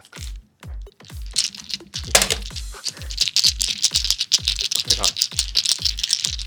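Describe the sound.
Dense clattering of mahjong tiles from a box being shuffled by hand, a continuous rattle of many small clacks, with a brief spoken word near the start and low thumps underneath.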